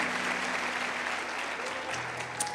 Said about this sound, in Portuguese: Se coloque de pé, por favor, aplaudindo o nome do Senhor.